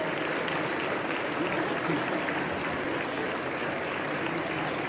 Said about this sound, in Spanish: Ahí está Xochitl Galvez llegando a la náhuac. Vean cómo la reciben, vean nomás, escuchen esto. Aplausos y todo.